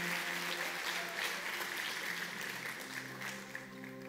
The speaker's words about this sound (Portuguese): Em nome de Jesus. A salva de palmas a Deus pela vida dela.